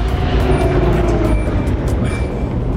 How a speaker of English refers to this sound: Unless I am mistaken, that is the sound of Valeria's Quinjet arriving.